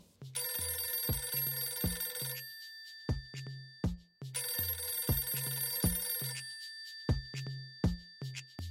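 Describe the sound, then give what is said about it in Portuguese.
A telephone rings loudly twice, each ring a bright, buzzing burst lasting about two seconds, set against steady low thumping beats. No one speaks. “É, mas antes vamos fazer aquela tradicional chamada e perguntar para o pessoal se eles sabem quem inventou a programação”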